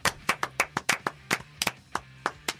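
Thin, half-hearted applause given as a demonstration of 'Wednesday applause': about a dozen separate hand claps at an uneven, unhurried pace, fairly crisp, with no voices.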